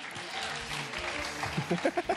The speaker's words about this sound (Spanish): Ahí está, un poquito de ah. aplauso porque ya saben que le gusta mucho esa motivación.